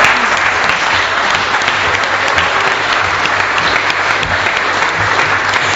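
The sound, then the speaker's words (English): An audience claps steadily and loudly for several seconds, a dense, even wash of many hands with no pauses and no voices standing out. “Let's uh, give another round of applause.”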